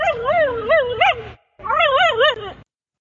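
A dog whimpers and yips in two wavering bursts of high, warbling whines, each lasting about a second with a short pause between, loud.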